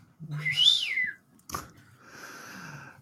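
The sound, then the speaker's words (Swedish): A person whistles: a bright, sliding whistled tone rising and falling, a short break with a soft click, then a steadier, wavering whistle. No one speaks. “Sluta vissla annars får du gå ut i busken med fåglarna som min fru brukar säga.”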